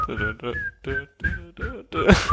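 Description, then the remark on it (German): A short whistled tune of a 1981 pop dance hit, bright and bouncy, with several quick phrases separated by brief pauses, fairly loud, ending in a louder burst that sounds like laughter or breath. “dieses Lied, was wir auch heute irgendwie an Fasching und Karneval manchmal noch kennen von äh, … …”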